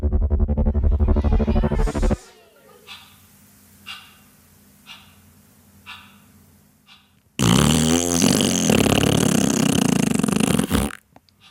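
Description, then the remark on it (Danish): A loud, buzzy raspberry blown with the tongue by an 11-year-old at the start of a two-minute silence, a wet flapping fart imitation, comes in two bursts: a short one at the start, then a longer, harsher one after a quiet gap with faint soft taps. “En pruttelyd med tungen.”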